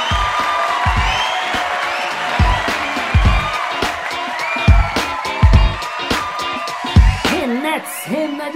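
An audience breaks into sustained applause, a dense wash of many clapping hands with scattered cheers and whoops rising above it, staying loud throughout before a high whistle near the end.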